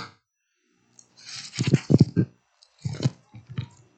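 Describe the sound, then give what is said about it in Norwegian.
Pages of a paper Bible being leafed through, two short bursts of crisp rustling and flicking, each a quick flurry of turns, with a brief pause between and no talking. “Så skal jeg slå et slag for å bruke papirbibelen. Hør”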